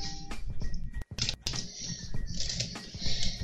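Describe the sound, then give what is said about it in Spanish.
Busy clatter of a computer keyboard being handled and wiped after pear juice was spilled on it, with squishy dabbing and patter sounds, continuous apart from a couple of brief gaps. “¿Qué volcó? Jugo de pera.”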